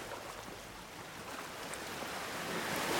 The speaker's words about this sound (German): So wie die Wellen im Hintergrund. Rein und raus.